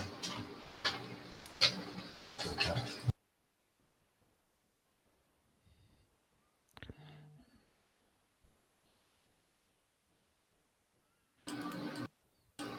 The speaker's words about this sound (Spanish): se ha puesto la impresora justo a... ruido, pero no, te preocupes.